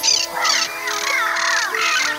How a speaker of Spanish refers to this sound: Fueron llegando las nutrias, las garzas, los loros,